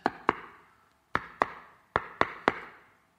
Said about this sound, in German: dass er an der Tür klopft.